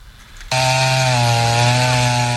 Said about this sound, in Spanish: Con lazos y sierras, este sábado fueron derribados por lo menos 80 árboles que estaban ubicados en la colonia Irrigación, en la Miguel Hidalgo, como parte de las obras de la nueva sede